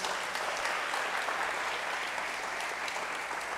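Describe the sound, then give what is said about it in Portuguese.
An audience applauds God during a sermon, a dense wash of many hands clapping at once, sustained and even throughout with no voices standing out. “Aplaudam a Ele mais uma vez.”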